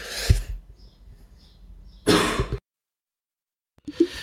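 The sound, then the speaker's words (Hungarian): Three harsh, raspy coughs burst out alone, separated by pauses with near-silence between them; the middle cough is the loudest and fullest, and the last cuts off abruptly. “ott a háttérben hallhattuk is …, aki most éppen azért nincs velünk, mert rettenetesen köhög”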